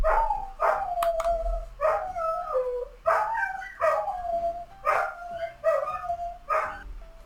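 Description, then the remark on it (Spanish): Dogs bark and howl excitedly in repeated bursts as a vehicle with a siren passes, about six loud outbursts with drawn-out wailing tones between sharp barks, no one speaking. “Tuve que interrumpir un momento porque ustedes saben lo que pasa con los perros cuando pasa un vehículo tocando sirena, empiezan a ladrar, se vuelven locos.”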